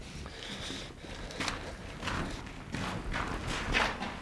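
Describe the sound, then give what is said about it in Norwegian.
Footsteps walk at a steady pace through a long brick corridor with gun embrasures inside a fortress, built in 1848, running from Østre Strandbatteri up to Borggården, on the way to the torpedo battery; each step a dull thump with a slight echo, over faint background noise. “Og vi går gjennom det indre av borgen i en lang teglstenskorridor med skyteskår og intrikat militær arkitektur fra 1848.”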